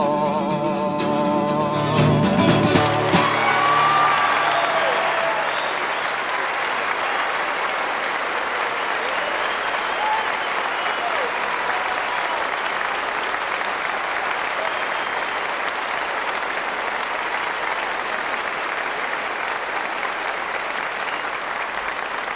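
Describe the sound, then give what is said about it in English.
A ringing final chord fades as a large audience breaks into steady, enthusiastic applause that continues evenly for about twenty seconds, a dense wash of clapping with no talking. “Save it clapping for the young fellow that wrote those last three songs.”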